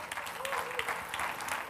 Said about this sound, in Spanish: Un aplauso al Señor.